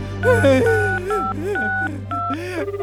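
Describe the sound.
A phone number is dialed: a series of short, steady DTMF beeps, each a clear two-pitch tone, sounding in quick succession over a voice and a low continuous hum. A father is dialing a mobile phone customer service number.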